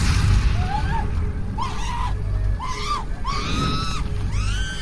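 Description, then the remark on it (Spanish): A woman screams in terror, several shrill rising-and-falling cries in quick succession, loud, over a constant heavy rumbling roar. “pero su hermana se aferraba a él mientras gritaba de terror.”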